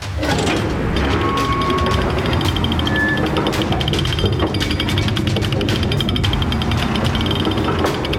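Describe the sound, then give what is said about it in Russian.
A heavy castle gate with a ratchet mechanism ratchets steadily open, a continuous loud clatter of clicking pawls and grinding gears with creaking metal, sustained throughout. “Открой ворота немедля!”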